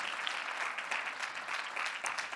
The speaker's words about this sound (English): Can we give all of our guests a wonderful hand clap here today? Thank you for joining with us.